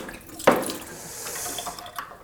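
Water from a tap splashes suddenly into a water bottle and keeps running in a steady, hissing stream as the bottle is rinsed, fairly loud, with no voices.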